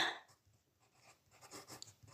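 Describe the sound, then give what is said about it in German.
Quiet scratching of a pen that is not writing properly, dragged across paper in short, uneven strokes, with a brief sharper click near the end and no voices. “Also, der Stift geht nicht.”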